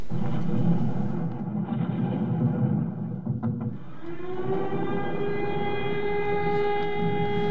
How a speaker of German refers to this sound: Das ist die Entwarnung und bedeutete, die Bombardierung war zunächst einmal vorbei, konnte aber in zwei, drei Stunden wieder losgehen.